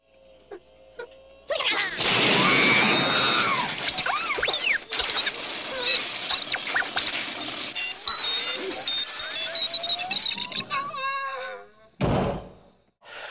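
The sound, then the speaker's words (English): A loud, sustained electronic screech full of warbling whistles and squeals from the robot R2-D2 in Star Wars, shot by Jawas, runs for several seconds, then breaks off before a short, heavy clunk as he topples over. “The scene in the movie where the Jawas shoot R2D2 and he falls over and makes that screeching noise and kerplunk.”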